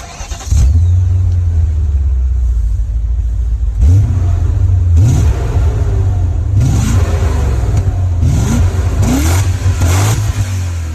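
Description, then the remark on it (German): A powerful V8 sports car engine fires up and settles into a deep, bassy idle, then gets blipped repeatedly, revving up in several sharp bursts that turn slightly raspy at the top before dropping back. “Wie gesagt, untenrum eher sonor und bassig. Und bei höheren Drehzahlen wird er so ein bisschen heiserer.”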